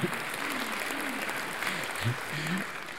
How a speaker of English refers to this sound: You're going to have to quit clapping.